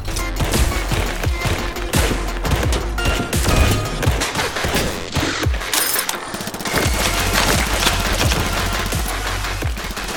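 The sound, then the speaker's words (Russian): Dense, loud bursts of rapid gunfire from an early-development shooter video game made in Unity, with rattling automatic fire and sharp impacts nearly continuous throughout, occasional heavier booms mixed in, and no talking. “в ней реализовано самое-самое главное для этого жанра, собственно, сама стрельба.”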